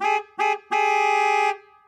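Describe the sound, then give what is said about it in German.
A Citroën car horn honks three times, two short beeps followed by a longer held blast, with a harsh, buzzy dissonant two-note tone, a second on G-sharp and G, loud, with no other sounds. “das Hupen des Citroën mit seiner scheußlichen Sekund auf Giss und Geh.”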